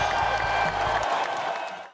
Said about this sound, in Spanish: Aplausos.